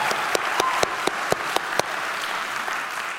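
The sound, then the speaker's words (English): A church audience applauds steadily for children who have just been baptized, a dense wash of clapping with a few sharper, louder claps standing out near the start before the applause settles into an even patter. “How about all those kids that just got baptized?”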